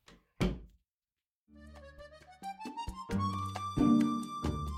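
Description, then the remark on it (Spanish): A front door slams shut once with a loud, heavy thud, followed by a moment of silence before music starts playing. “Por lo común, no cierro tan ruidosamente la puerta de la entrada.”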